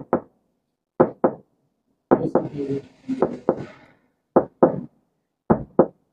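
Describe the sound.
Sharp knocks land in quick pairs, a lub-dub rhythm mimicking a heartbeat, repeated several times with short pauses. A voice briefly talks over the knocking partway through.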